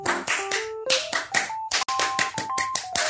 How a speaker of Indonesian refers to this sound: Biar lebih kental suasana dan nuansa bahasan pramukanya, yuk kita tepuk sekali lagi, tepuk pramuka.